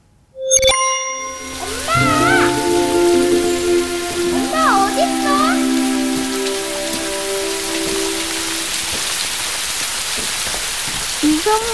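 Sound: rain falling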